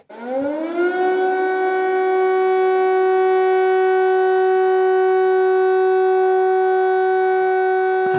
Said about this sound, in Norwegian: altså luftvernsirenene